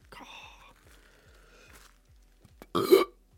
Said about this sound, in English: Making me burp quite a bit, but that's pretty cool. there we go. Three burps, one review.